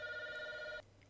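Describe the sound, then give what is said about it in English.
A telephone rings loudly with one steady, buzzing electronic tone that cuts off abruptly, followed by quiet low hum. No one speaks. “Apparently, I'm really popular with people who like to hang up on me.”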